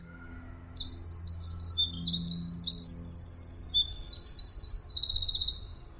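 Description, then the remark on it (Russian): A Eurasian wren sings loud, a rapid, high-pitched outpouring of trills and rattling repeated notes that runs almost unbroken for several seconds over faint low background hum. “И если вы научитесь узнавать именно вот эту трещоточку, давайте напомним, как звучит Крапивник, раз Зарянку и Крапивник иногда путают.”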